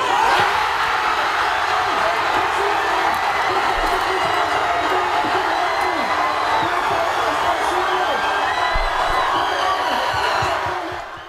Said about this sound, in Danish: Og øh, der skete jo det magiske. Efter 30 minutter, Mikkel Damsgaard, den dejlige dreng, han, øh, han gjorde noget, der fik øh, folk til at juble sådan her.